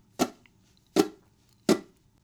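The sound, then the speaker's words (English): Three dry, percussive muted downstroke strums on fretted guitar strings, evenly spaced, each a short scratchy chunk that dies away quickly, with no one talking. “If you're getting any kind of note or tone out of a string, you'll want to lighten up on whatever the offending finger is, so you're just getting this muted sound.”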